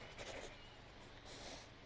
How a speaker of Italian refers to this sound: Quando trovò uno spazio, calò la penna nera sulla carta ed iniziò a scarabocchiare.